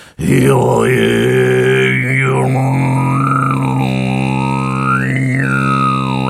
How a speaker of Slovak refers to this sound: Tam je ten, môžem to ukázať, tam je ten, Môžeš tam je tento Kargira napríklad.